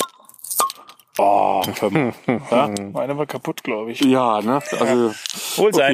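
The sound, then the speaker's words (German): A short pop and a soft fizzing hiss as bottles of naturally cloudy, unfiltered Helles beer are opened in front of a microphone, followed by a few clicks before people start chatting over them. “Ähm, wir machen jetzt alle das Bier auf und trinken dann.”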